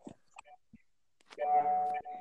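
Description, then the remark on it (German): A phone charging cable gives a loud, steady electronic beep as it comes out and plugs back in with each movement, a sustained mid-pitched tone with a brief break near the end, following a few short murmured voice fragments. “Was piept da eigentlich die ganze Zeit rum?”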